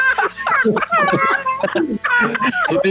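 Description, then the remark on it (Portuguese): Chickens squawk frantically and nonstop, many shrill overlapping cries rising and falling in pitch, loud, filling the whole stretch without a pause. “Já, já, é, já é os frangos desesperados aqui já.”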